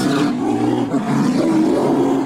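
A loud, sustained polar bear roar in Antarctica, with a deep, rumbling growl that stays strong for a couple of seconds, heard alone with no talking.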